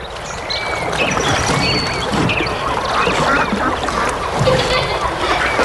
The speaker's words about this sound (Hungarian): Van egy hely, ahol nem az autódban, hanem vízparton ülhetsz órákat, kacsákat és evezősöket nézve.